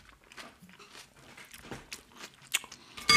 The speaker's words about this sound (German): Ich muss dazu sagen, ich esse gerade eine ganze Schüssel Salat.